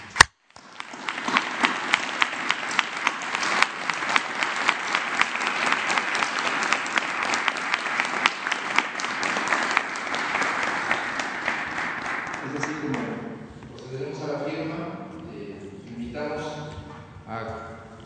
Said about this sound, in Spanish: Pero un abrazo y yo propondría un aplauso por este entendimiento.